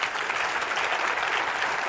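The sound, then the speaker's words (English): Dense, steady applause from a large church audience clapping their hands at the preacher's request, filling the whole moment at an even level without any speech rising above it. “And now I want you to clap your hands.”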